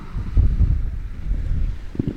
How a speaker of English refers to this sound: Taking some more ocean, guys. Mm, ocean.